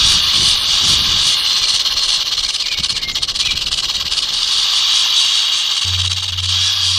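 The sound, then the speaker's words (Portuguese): A rattlesnake hisses through its mouth in a steady, loud, breathy rush that runs unbroken for several seconds, with a low hum creeping in near the end. “Ela, a Cascavel também produz um, um som através da, da boca, um, som bem curioso. Um chiado, é, né?”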